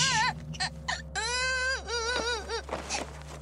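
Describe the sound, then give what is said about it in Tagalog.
A young child who has tripped and fallen cries and whimpers in a series of wavering, high-pitched wails, fairly loud, with short catches of breath between bursts and no talking. “stop crying. Mommy's here.”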